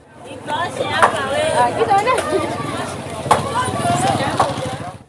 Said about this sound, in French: Les étals sont remplis de fruits, légumes, viandes et poissons. Les clients font leurs courses et les vendeurs crient pour attirer l'attention.